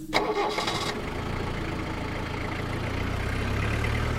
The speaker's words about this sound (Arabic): وانطلقت السيارة في الطريق المظلم نحو جريبو